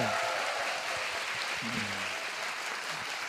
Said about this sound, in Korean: 다시 한번 좀 박수 한번 좀 주세요.